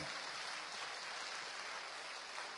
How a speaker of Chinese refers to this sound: 感谢和祝贺的掌声送给这样一个善举，送给这样一个比较大的数字吧。